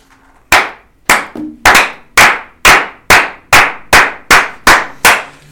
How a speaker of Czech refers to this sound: Tohle byl potlesk.